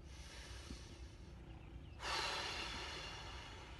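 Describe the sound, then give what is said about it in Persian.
A long, deep breath during a stretching exercise, inhaling while moving the shoulders forward and exhaling while pulling them back: a quiet stretch, then a loud, airy rush of air that holds steady and slowly fades, with no talking. “دم شونه رو میدیم جلو و بازدم شونه رو میکشیم عقب”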